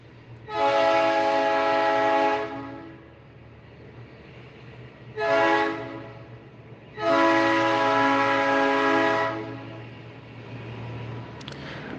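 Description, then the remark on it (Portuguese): A train horn sounds three times, two long loud blasts around a short one, over a steady low rumble of a passing train. No one speaks. “Agora temos que esperar o trem passar.”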